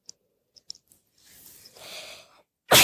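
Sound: sneeze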